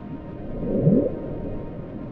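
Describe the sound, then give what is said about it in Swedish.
A powerful underwater sound picked up by several hydrophones in the southern Pacific Ocean, over 3000 km apart, in summer 1997, lasting about a minute: a low, rumbling wash of noise with a brief upward-sweeping tone near the middle, muffled, with no voices. “Plötsligt fångar flera hydrofoner, undervattenmikrofoner, utplacerade i södra Stilla havet upp ett oerhört kraftigt ljud”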